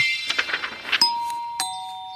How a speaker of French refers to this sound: La sonnette retentit.